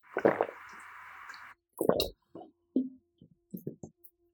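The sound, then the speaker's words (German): Loud drinking of water by people: a slurping sip at first, then a run of wet gulps and swallows in an irregular rhythm, with short pauses between them and no talking. “Es gibt Menschen, die immer laut trinken und es gibt Menschen, die immer leise trinken.”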